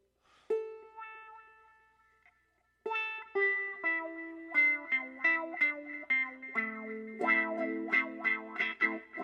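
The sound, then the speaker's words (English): A ukulele played through wah and echo effects, starting with one sustained note that rings and decays, then a quicker run of notes and chords with a swelling, filtered wah tone and echoing tails. No one speaks. “Because first of all, wah, and second of all, echo.”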